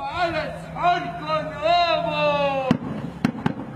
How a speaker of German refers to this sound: Aber der schönste Brauch des Ramadan ist der Al-Msahir. Das ist ein Mann, der mitten in der Nacht vor der Morgens Gebetsruf die Leute aufweckt, indem er einfach laut schreit und seine Trommel schlägt.